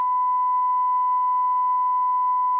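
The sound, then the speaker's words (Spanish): A single censor bleep: one steady, unwavering electronic tone held at constant loudness for nearly three seconds, then cut off abruptly, with no voices beneath it. “Eh, esta persona, eh, Pitido,”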